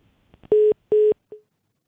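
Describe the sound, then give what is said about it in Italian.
Two loud, steady electronic phone tones of equal length with a short gap, then a brief fading blip, a disconnected line signal after a listener's call to a radio phone-in drops; no one speaks. “Caduta?”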